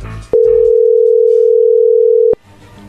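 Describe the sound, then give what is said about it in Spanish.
A telephone ringing tone as a call is being dialed: one steady, loud, low-pitched hum lasting about two seconds, starting and stopping abruptly with faint clicks, with no one speaking over it. “Ok, Lobo, ahí se está marcando.”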